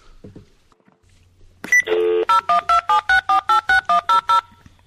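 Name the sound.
telephone dialing tones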